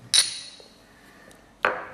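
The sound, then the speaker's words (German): Glasses clink together twice in a toast, bright ringing strikes about a second and a half apart, with a brief shimmering ring after the first and no talking. “Prost, ne?”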